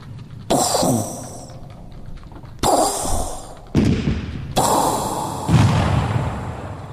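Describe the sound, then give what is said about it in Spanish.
A voice imitates the cannon fire of the Battle of Waterloo with a series of about five loud, breathy booming bursts, each sudden and then fading, spaced irregularly a second or so apart. “Yo imitaba el cañón y hacía...”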